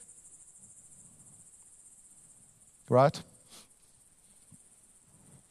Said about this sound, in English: There's a bird in the speaker.